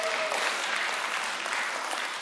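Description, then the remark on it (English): A steady wash of clapping hands from an audience applauding themselves for getting through a series on the book of First Corinthians, dense and even throughout, with no individual claps standing out and no voices on top. “You can give yourself a round of applause.”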